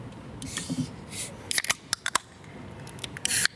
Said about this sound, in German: Mein Getränk zischt. Genau.